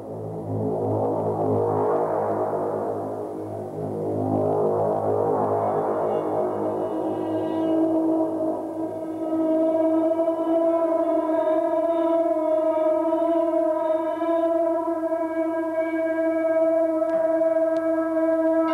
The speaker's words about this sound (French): Donc, c'était … qui joue du Space Bass dans son appart.